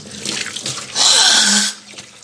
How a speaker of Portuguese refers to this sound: Calma, ligar a pia aqui.